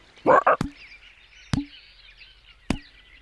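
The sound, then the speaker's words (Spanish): A toad gives a short, throaty croak, followed by three sharp, hollow clucks spaced about a second apart, set against a faint, steady chirring of night ambience. “Si soy un sapo perfectamente hermoso.”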